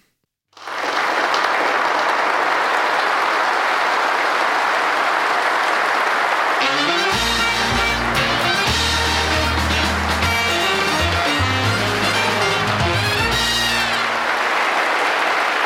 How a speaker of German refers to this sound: Sehr schön. Ein Applaus bitte. Ja, dafür kriegen wir einen Applaus.